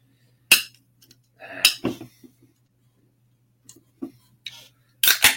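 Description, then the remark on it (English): Sharp clicks and metallic clinks from a container of stout beer, brewed with cold brew coffee, cinnamon, vanilla and lactose, being cracked open, with a brief airy hiss partway through and a couple of bright snaps near the end, no talking. “Let's crack her open.”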